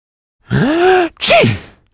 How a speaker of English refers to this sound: In fact, this is what to say when someone sneezes near to you.